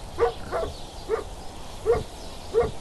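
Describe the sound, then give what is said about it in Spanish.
A dog barks five times in short, sharp bursts at uneven intervals, moderately loud over a faint steady background hiss, with no voices. “Rió un niño en el jardín vecino y un perro ladró.”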